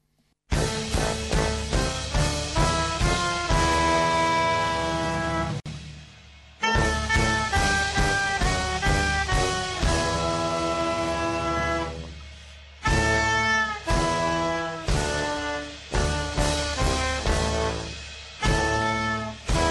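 A full band plays a lively song with strong rhythmic accents, dense harmonic instruments and bass, pausing briefly twice before kicking back in, loud, with no talking.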